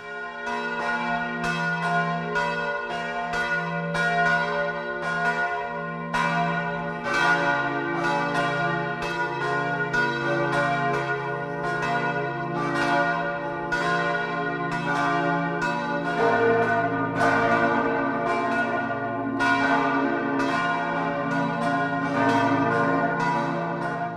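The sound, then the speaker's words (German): Several church bells in the 58-metre onion-dome tower of the Protestant St. Stephan town church in Lindau on Lake Constance, Germany, ring the 12 o'clock midday peal together in a continuous, overlapping peal, their strikes layering into a dense, resonant wash of tones at steady volume with no voices. “Das Mittagsläuten kommt heute aus Lindau im Bodensee.”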